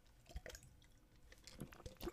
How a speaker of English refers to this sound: Sorry, I had to get some water in my mouth. I was all dried out for some reason.